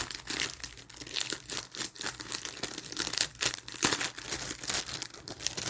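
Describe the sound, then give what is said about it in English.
A clear plastic bag full of black and gold balloons, and clear balloons with black and gold confetti inside, crinkles and rustles with steady handling and irregular sharp crackles throughout, no voices. “So there is um, a plastic bag, a clear, clear plastic bag with balloons in it.”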